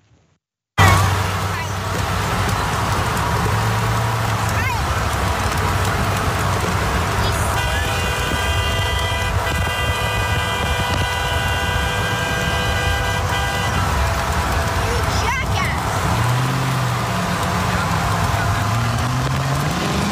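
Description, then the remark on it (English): Steady roar of highway traffic in Texas on October 30, 2020, as a caravan of about 50 Trump supporters' vehicles harasses Biden campaign staff, with a loud sustained car horn blaring for several seconds mid-way and more scattered honks from the surrounding cars. “It was October 30th, 2020 a caravan of 50 Texas Trump supporters in their vehicles began to dangerously harass Biden campaign staff members.”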